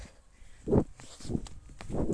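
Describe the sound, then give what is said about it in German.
Three heavy, thudding footfalls land at uneven intervals as a person bounds along pretending to be a cantering horse, fairly loud over quiet background rustle, with no talking. “Warte mal, ich tue jetzt mal so, als wäre ich ein Pferd.”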